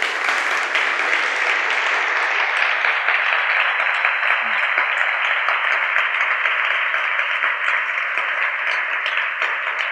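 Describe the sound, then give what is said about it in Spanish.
A church audience applauding Jesus together, a dense, steady wash of many hands clapping that holds at an even, fairly loud level for the full ten seconds with no voices rising above it. “Ha sido un año extraordinario y creo que le podemos dar un aplauso a Jesús por ello, ¿verdad?”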